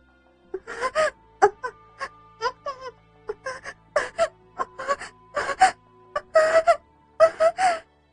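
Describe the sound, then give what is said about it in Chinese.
A woman moans in a rapid series of short, breathy bursts, roughly a dozen rising and falling vocal sounds with gasps between them. The moans are fairly loud, with no talking. “听到继母发出的呻吟声”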